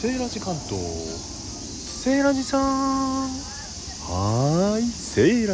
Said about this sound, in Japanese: なんか山奥セミの鳴き声聞こえるけど